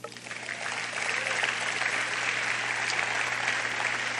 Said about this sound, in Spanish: ¿Le dan un aplauso a Dios?